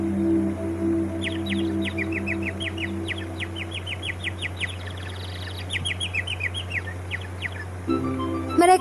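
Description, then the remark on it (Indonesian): A snow-white bird sings in a forest in quick bursts of bright, high chirps and trills, repeated in short rhythmic phrases over a steady low hum, clear with no voices. “Burung itu berkicau dengan suara indahnya untuk Hansel dan Gretel.”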